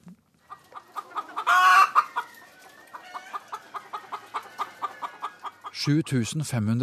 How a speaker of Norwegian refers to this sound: høner holder til på gården til Erik Sørli i Skjeberg i Østfold